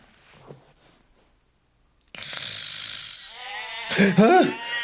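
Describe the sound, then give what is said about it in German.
A sheep's wavering, nasal bleat rises near the end over a steady hiss of night ambience, with faint murmuring voices earlier and a high insect-like tone running through the first half. “Was? Schafe.”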